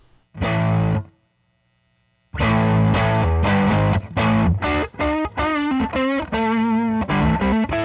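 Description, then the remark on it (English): Overdriven electric guitar through a diode-clipping pedal: a short crunchy chord, a brief pause, then a loud, gritty riff of changing notes ending in wavering, bent sustained tones. “The left is just clipping diodes.”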